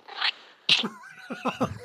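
cat meowing

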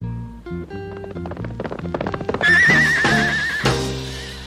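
horse neighing

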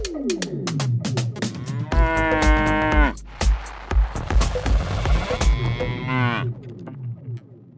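cow mooing

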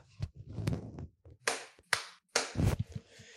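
single hand clap

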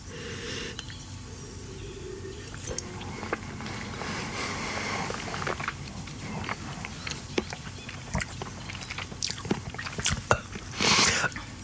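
slurping wine

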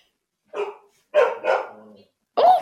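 dogs barking

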